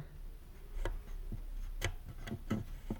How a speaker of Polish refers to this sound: Ja może przybliżę rejestrator i tak pokażę zarówno suwaki, jak i pokrętło. Pokrętło jak się kręcą wydały taki dźwięk.